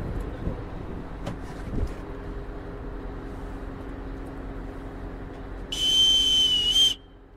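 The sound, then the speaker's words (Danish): A boatswain's pipe gives one shrill, sustained high whistle lasting about a second, blown by the skipper aboard a naval home guard vessel casting off in Køge Harbour, Denmark, on a sunny autumn Sunday at 9 o'clock during a search-and-rescue exercise, over steady low engine rumble and wind noise. “Solen skinner fra en klar efterårshimmel over Køge Havn, og fartøjsføren har fløjtet budsmandspipen.”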